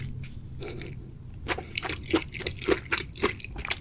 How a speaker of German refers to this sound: die kurz angebraten wurden, äh, mit einer Soße dran. Das heißt, die sind, die haben noch viel Biss und so hört sich das dann auch an, wenn eine Person das eben isst. Und ja, das ist einfach das Geräusch und die hat einen ganzen Teller voll davon.